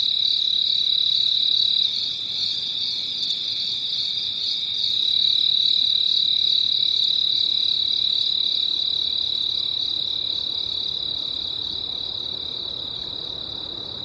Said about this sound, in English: There it is. The first song of the day. And maybe the last cricket of the night.